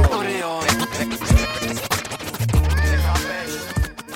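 Rapid DJ turntable scratches cut over a hip hop beat in a song remix released around 2002, with deep kick drums and sliding pitch sweeps repeating in quick rhythmic bursts, loud and up front throughout.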